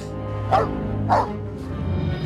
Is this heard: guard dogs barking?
yes